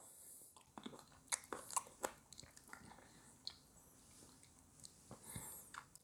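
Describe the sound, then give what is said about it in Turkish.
Quiet, wet chewing of grapes, with irregular crunchy bites and soft smacking mouth sounds repeating over several seconds, with no talking. “İşte üzüm yiyorum şu an.”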